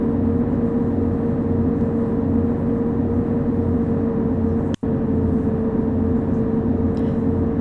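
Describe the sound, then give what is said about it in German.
A simulated bus engine at full throttle on a straight road drones loudly and steadily with a deep, constant hum, interrupted by a split-second dropout midway; no voices are heard. “Und wir können komplett Gas geben.”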